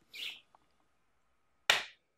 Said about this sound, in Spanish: No, yo aplaudí mal.